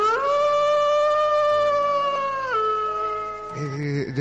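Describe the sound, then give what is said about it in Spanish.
Wolves howling: a long, loud, sustained howl holds a steady pitch, dips lower partway through, then wavers into rougher overlapping cries near the end, with no talking. “con los ayudos de los lobos incorporados”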